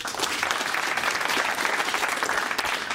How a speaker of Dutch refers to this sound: Daarmee komt hij uit op een zesde plek. Geef hem maar een uh, daverend applaus